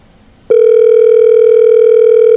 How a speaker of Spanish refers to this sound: A ver si nos contesta la llamada.